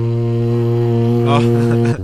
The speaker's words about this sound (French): Le Titanic, ah, ok, donc c'est pas un bruit de bouche. machine à vapeur.